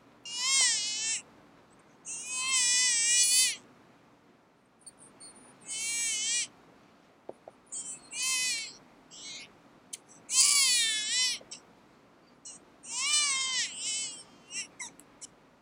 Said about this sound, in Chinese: 这里有一个很有趣的网站，录下很多代表不同婴儿意见的哭声。我们来听一听其中一个哭声。